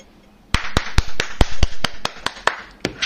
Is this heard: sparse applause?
yes